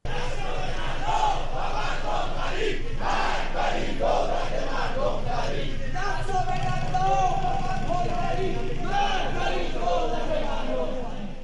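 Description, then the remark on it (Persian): Hundreds of farmers from east Isfahan, gathered in Khorasan Square to protest being denied their water rights, chant together in loud, rhythmic bursts, many voices rising and falling in unison over a constant roar of massed shouting that carries on for the whole stretch. “صدها تن از کشاورزان شرق اصفهان دوشنبه هفته گذشته همانند دوشنبه های قبل از آن در اعتراض به محروم ماندن از حقابه خود در میدان خراسان تجمع کردند”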